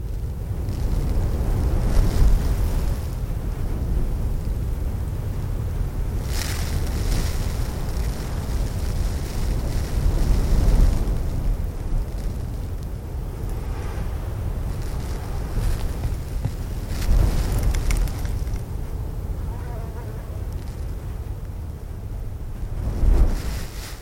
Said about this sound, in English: I was after the very delicate sound of wind, of uh, sand spray, of sand just being gently blown by the wind and falling onto the, the crust of sand.